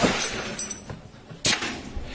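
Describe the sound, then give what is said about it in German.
Several gunshots crack out at irregular intervals during a police raid on a house, sharp and percussive, with one louder blast standing out among quieter shots over a noisy background. “Nicht schießen, ruft der Journalist und wieder kracht es.”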